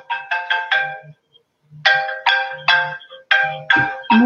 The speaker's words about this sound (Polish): E, tak, ktoś dzwoni, muszę to wyłączyć. Zapomniałam, nie myślałam, trudno. Przepraszam.